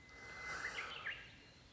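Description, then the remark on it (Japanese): Faint outdoor ambience: a few short, bright bird chirps in the middle over a steady, high insect drone, quiet, with no voices. “音もいいんですよね外はね鳥が鳴いて虫が鳴いて風が吹いて。”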